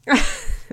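A single sharp sneeze, a sudden loud burst of breathy noise with a brief voiced edge that quickly trails off. No one talks over it.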